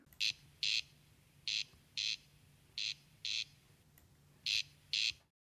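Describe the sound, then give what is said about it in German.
A corncrake call recording played back on Michael Schödel's phone: four pairs of dry, rasping double notes, crex-crex, repeated at a steady rhythm over a faint low hum, with no talking. “Dafür zeigt mir Michael Schödel eine Aufnahme des markanten Rufes selbst auf seinem Handy.”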